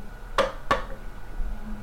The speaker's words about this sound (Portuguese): Telefone caindo no chão